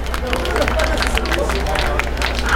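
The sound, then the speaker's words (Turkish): A crowd claps together for a young participant who answered a history question, in a dense, steady burst of applause that stays loud for the whole couple of seconds, with a murmur of voices mixed into the clapping. “Genç arkadaşıma bir alkış.”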